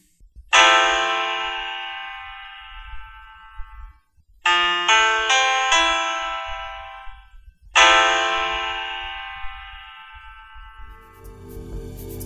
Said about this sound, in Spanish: al final resalta un acorde del que va a partir la historia de Carl en el tiempo presente, un Fa mayor 7, que más o menos suena así.